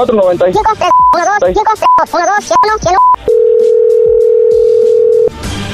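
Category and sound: signal or alarm, telephone dial tone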